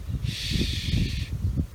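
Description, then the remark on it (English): A steady hushing "shh" made by putting the teeth together and blowing air through them, the sound used to ask someone to be quiet, lasting about a second, with a soft low rumble of breath and room noise underneath. “when you're gesturing for someone to be quiet, shh, that sound is the shh, shh, okay?”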